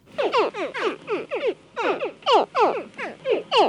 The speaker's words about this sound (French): Là, ce qu'on vient d'entendre, c'est des cris de bébés crocodiles juste avant la sortie de l'œuf. Donc là, ils sont en train d'émettre des cris depuis l'intérieur de leur coquille.